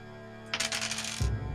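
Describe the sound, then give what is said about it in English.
A small metal shim flies out of a pressure plate and pings and clatters across a hard floor in a quick run of bright, rattling bounces, ending with a soft low thud; fairly loud, no voices. “Two, the pressure plate lowers and you guys hear ting, and the little shim goes flying out of the pressure plate, clattering across the room.”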